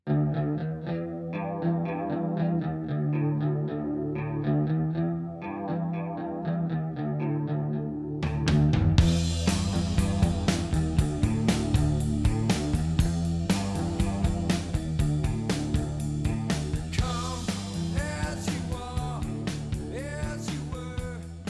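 A murky, chorus-drenched electric guitar riff plays alone for several seconds before drums, bass and distorted guitars crash in, driving a loud, mid-tempo grunge rock groove with steady cymbal hits.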